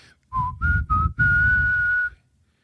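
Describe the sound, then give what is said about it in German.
A person whistles a short jingle: three quick notes followed by a long, held final note, clear and fairly loud with no talking. “Ich versuche übrigens seit, ich, seit neun Tagen immer den RTL-Claim zu pfeifen”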